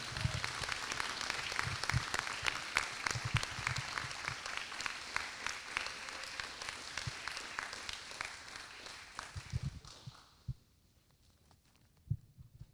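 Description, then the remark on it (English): A church audience applauds to celebrate a baptism as a woman comes up to share her testimony of faith: dense, steady clapping for about ten seconds, punctuated by a few low thumps, then the applause fades out abruptly, leaving near silence with one last soft thud. “Let's give a big hand, uh, clap praise to the Lord as she comes up.”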